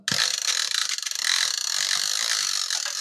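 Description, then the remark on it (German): A hair dryer's cord is pulled out in one steady draw, giving a loud, rapid ratcheting whir that runs for about three seconds with no voices. “Pass auf, jetzt zieh ich, jetzt zieh ich einen Stecker raus. Hört sich so an.”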